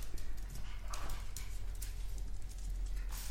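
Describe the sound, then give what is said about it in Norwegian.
A small Pomeranian dog named Bølle moves about, its light paw and claw taps scattered irregularly over a low steady background hum, with no talking. “Pomeranen?”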